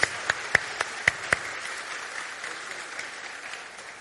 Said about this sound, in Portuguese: Muito obrigado. Dá para dar uma salva de palmas agradecendo a eles pelo serviço deles?